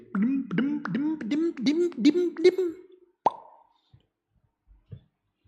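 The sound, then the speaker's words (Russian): A voice makes a quick run of rhythmic, pulsing vocal sounds, then a single sharp mouth pop imitating an injector pen clicking, followed by near silence. “Чпок, и готово.”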